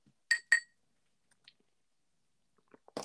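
Two sharp, bright glass clinks in quick succession, loud, as beer glasses are raised in a toast, followed by quieter faint taps and a brief shuffling noise near the end.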